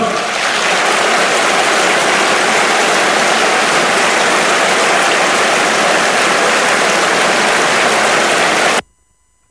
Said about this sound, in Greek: Λοιπόν, εδώ πέρα άμα δείτε από κάτω ποιοι ήταν και χειροκροτούσανε αντισυνταγματάρχες συνταγματάρχε, συνταγματάρχες, φλόροι, ξεφλόροι, όλοι από κάτω, χειροκροτάνε, μπράβο, πριν τι εκλογέ ήταν αυτά που έλεγε.